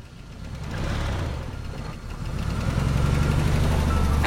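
The engine of a blue minivan rumbles with a low, steady drone as it gradually drives away, its hum swelling slightly, with no voices present.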